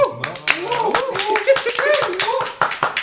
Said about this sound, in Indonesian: ayo, tepuk tangan